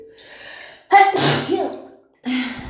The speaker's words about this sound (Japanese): くしゃみでそうです。